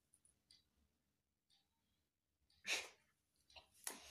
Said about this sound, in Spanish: Voy a estornudar, perdón, ¿eh?